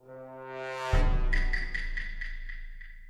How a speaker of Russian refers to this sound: Также завирусился звук из игры, который проигрывается во время демонстрации игрокам их ролей.